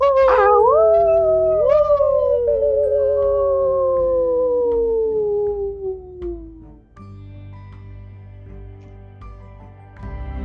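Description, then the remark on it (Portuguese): Several people howl together in imitation of wolves, long wavering tones that rise and then slowly slide downward for about six seconds before fading into a quieter background. “Vamos fazer um belo uivo agora.”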